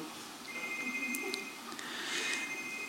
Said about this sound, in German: Telefon